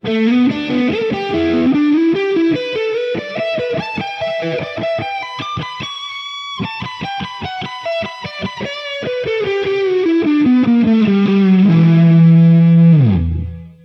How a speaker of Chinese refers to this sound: 那假如我要是用失真音色呢？咱们换到这一台音箱的失真通道再试一试。首先还是串在 Fax Loop 里的声音，